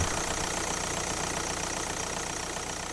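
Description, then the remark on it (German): A parked car engine idles steadily, a continuous low rumble with a faint rhythmic knock and no speech over it. “Oder wie ein parkendes Auto?”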